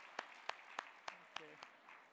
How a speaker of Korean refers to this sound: 우리 한번 큰 박수로 격려해 주시 바랍니다.